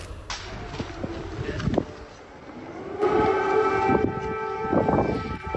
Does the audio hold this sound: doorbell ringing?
no